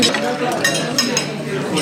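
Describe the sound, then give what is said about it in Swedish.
A fork or knife scrapes and clinks against a plate while potato, beef, lingonberry jam and mushroom sauce are mashed and stirred together, a steady run of small clatters and squishy mixing sounds. “Det är bara att muscha ihop allting.”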